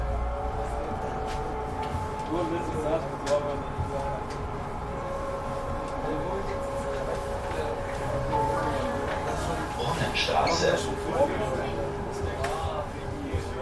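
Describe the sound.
Inside a moving tram in Bremen, Germany, on a Sunday night: a steady low rumble and humming drone of the ride, with occasional rattles and a brief metallic squeal, and faint murmuring voices in the background.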